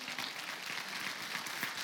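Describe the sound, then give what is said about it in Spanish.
An audience applauds the Lord, steady dense clapping filling the whole moment at a moderate level, with no talking over it. “Vamos, denle el aplauso al Señor.”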